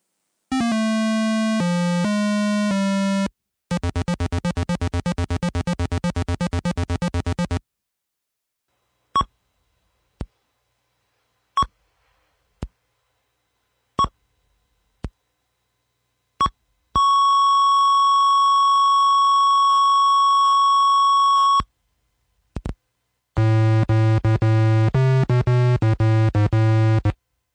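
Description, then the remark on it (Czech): Simple beeping music from a 1988 medical computer game on an old home computer, the intro melody and the tune played when a patient dies: a short buzzy square-wave melody, scattered sharp blips, a long held electronic tone, then another gritty tune. No one speaks. “Slyšeli jste úvodní melodii i muziku, která hraje, když vám pacient zemře pod rukama.”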